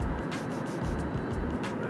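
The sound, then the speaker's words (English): Steady road rumble from inside a moving car, a continuous low droning hum with faint hiss over it and no voices, holding at an even level throughout. “I'm trying to pay attention to traffic at the same time I'm doing this.”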